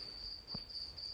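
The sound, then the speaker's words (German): A steady, high-pitched cricket trill drones continuously in the background, fairly faint, with a brief low thump in the middle and a burst of noise at the very end. “Ihr hört diese Scheißgrille im Hintergrund.”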